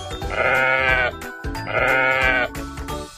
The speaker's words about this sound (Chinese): 公羊低着脑袋，缩着脖子，用尽全身的力气也无法挣脱。在大太阳的照射下，又累又饿又渴，它只能咩咩咩咩地叫着。